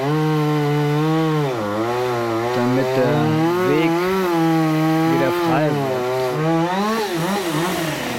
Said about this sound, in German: Dann kommt die Motorsäge zum Einsatz.